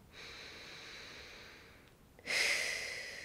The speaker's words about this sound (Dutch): Even een paar keer een goede ademhaling doen. Doe dat maar even terwijl je deze podcast luistert. Even een paar keer goed door de neus ademen.